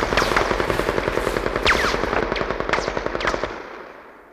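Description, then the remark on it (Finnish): Sustained bursts of rapid machine-gun fire mixed with sharper single rifle shots, a dense crackling barrage that rattles on for several seconds before fading out, as troops fire off their last ammunition around seven in the evening to clear a road of Reds. No voices are heard. “Kellon lähetessä seitsemän illalla majurivon Reeden antoi meille käskyn käyttää viimeisetkin ampumatarvikkeet.”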